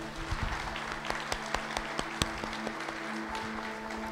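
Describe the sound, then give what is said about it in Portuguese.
A church audience applauds to the Lord for the life of each father present, with sustained, dense clapping, individual sharp claps popping out over the steady wash, while a low droning tone hums underneath throughout. “Dê um aplauso ao Senhor pela vida de cada pai que aqui está.”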